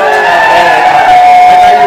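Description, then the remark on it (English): A crowd at the flagship Deseret Bookstore in downtown Salt Lake City cheers loudly and continuously, a dense wash of whoops and shouting voices filling the whole two seconds with no pause. “We wish you could show, we wish we could show you everybody who's here because we're about to have so much fun, but everybody just cheer.”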